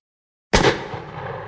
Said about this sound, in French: sortit son arme et tira deux balles en plein torse de son vis à -vis.